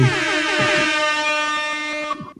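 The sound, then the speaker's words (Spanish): A loud DJ air horn blares in one continuous, brassy blast lasting a couple of seconds, bright and buzzing, with no voices around it. “Y, las trompetas de DJ.”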